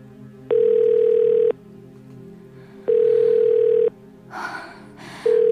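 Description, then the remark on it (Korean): A phone call rings out unanswered: a steady, buzzing ringback tone sounds in one-second pulses with pauses between, three times, with a brief soft rustle in one gap. “문자에 답도 없고 전화도 안 받고 무슨 일이지?”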